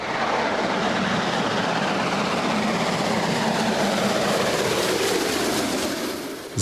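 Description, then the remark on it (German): A steam express locomotive, number 01 150, pulling a long, heavy train on the rails rumbles steadily past, a loud, continuous roar of rolling wheels and machinery that holds for several seconds without any voices. “So soll sich die Lok wieder anhören, wenn sie auf den Gleisen unterwegs ist und einen langen, schweren Zug zieht.”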